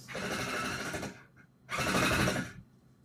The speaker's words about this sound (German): Jetzt wird hier noch gebohrt. Ich hoffe echt, ihr hört es nicht so. Es tut mir leid, wenn ihr es hört.